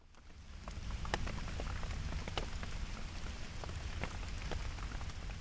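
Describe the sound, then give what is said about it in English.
Steady rain falls on a day with a high of four degrees, a dense patter of drops striking a hard surface with scattered sharper ticks, moderately loud and continuous with no voices. “Today is a high of four degrees with a very high chance of it raining, uh, like 90% precipitation.”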